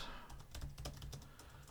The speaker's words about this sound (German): Ach, ich bin so schlecht im Tippen heute wieder.